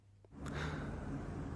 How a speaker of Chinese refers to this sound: 哼，这是鹿角虫打了一个大大的哈欠。